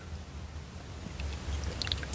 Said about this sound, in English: I'm gonna take a sip of my coffee real quick.